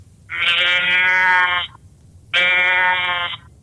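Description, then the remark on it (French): A person gives two long, nasal bleats, loud, separated by a short pause, imitating the call of a female roe deer in heat. The drawn-out cries sound much like a sheep's bleat. “C'est le cri de la femelle en chaleur c'est pas écrit qu'on va entendre aussi fort qu'un orignal à, longue distance.”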